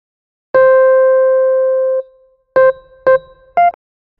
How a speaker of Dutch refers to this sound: Vervolgens komen de instructies, die deels gesproken zijn en deels uit geluidssignalen bestaan. Zo geven we met dit signaal de start van een interval aan.